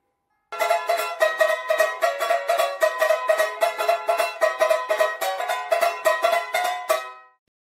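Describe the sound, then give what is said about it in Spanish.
A ukulele, a Polynesian string instrument with strings of fishing nylon, strummed in a steady, even rhythm, bright chords repeating for several seconds with no voices, then a final strum left to ring out. “amigos y amigas, hoy les vengo a presentar este instrumento de cuerda que se llama ukelele, es polinésico, sus cuerdas son de nylon, de pescar, suena así.”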